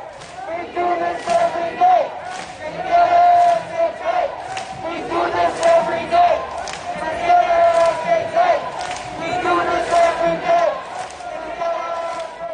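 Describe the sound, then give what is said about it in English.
A large protest crowd on a march chants tactical chants in unison, voices rising and falling in a steady rhythmic call that repeats across the whole stretch, loud with a dense wash of many shouting voices. “Tactical chants are a way for one part of the crowd to talk to another part of the crowd.”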